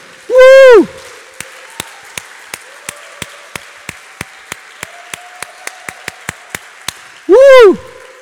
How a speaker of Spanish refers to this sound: Denle un aplauso al Señor. Fuerte.